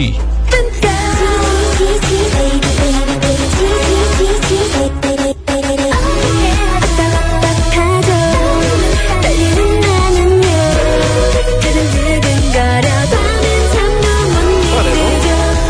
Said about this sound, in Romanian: Și are 100 de piese și pe locul întâi este această melodie difuzată în premieră în România, cred, cea mai tare piesă K-pop din istorie.